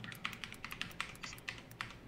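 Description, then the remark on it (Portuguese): Rapid clicky keystrokes on a gaming keyboard while logging in, about a dozen sharp taps in an uneven typing rhythm, fairly quiet with no voices. “Esse teclado gamer aqui é bom pra errar.”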